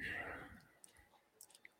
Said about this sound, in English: And for those just listening to me munch on something on the radio, I'm telling you, you got to you got to be on YouTube to watch these things.